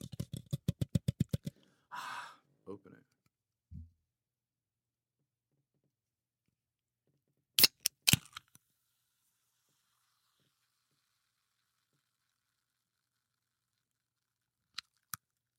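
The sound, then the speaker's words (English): A cold can of LaCroix sparkling water is opened: a quick run of tapping clicks, a short fizzy hiss, then sharp metallic cracks and a couple of faint clicks near the end, with no talking. “a nice cold sparkling LaCroix. So why don't you why don't you grab yourself a beverage, preferably one that's that's sweating because it's it's very crisp.”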